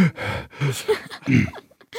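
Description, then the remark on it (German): A voice imitates a wheezing, whistling lung: several short, strained, breathy pushes with a thin squeaky edge, fairly loud, broken by brief pauses. “Pfeifende Lunge, wie die Lunge pfeift zum Beispiel.”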